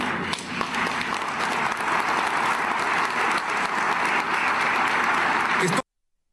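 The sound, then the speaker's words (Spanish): Loud, sustained applause from a large crowd at a convention in Peru, a dense wash of clapping that holds steady for several seconds before cutting off abruptly. “Grandes aplausos.”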